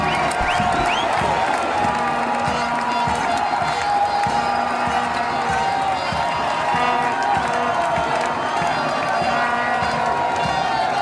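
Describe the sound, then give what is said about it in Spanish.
A large crowd applauds and cheers the football team on its return to Argentina, a dense, continuous wash of clapping and shouting voices that stays loud and steady from start to finish. “La gente los aplaudía.”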